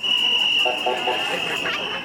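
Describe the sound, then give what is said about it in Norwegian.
Women protesters whistle on a rainy night in Istanbul, Turkey, protesting women's situation there: a steady, piercing whistle holds one high pitch without pause, loud and shrill, while a crowd's shouting voices rise and fall beneath it. “og fløyter i natten for å varsle om kvinners situasjon i Tyrkia.”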